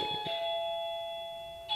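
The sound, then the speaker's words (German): An electronic doorbell chimes with sustained, ringing tones that fade slowly, then a second strike sounds near the end. Clear, with no voices over it. “Es klingelt, der Corrado wird abgeholt.”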